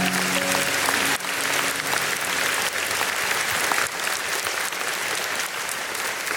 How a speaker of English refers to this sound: Come on, let's clap it up for Jesus one more time.